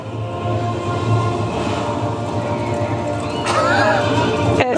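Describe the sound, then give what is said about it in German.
Dense, rumbling hoofbeats of galloping horses fill a film scene in which Abraham Lincoln leaps from one horse's back to the next while fighting vampires, with a loud neigh rising out of the commotion near the end and a sharp crack just before it stops. “läuft beim Kampf gegen Vampire über Pferde über galoppierende”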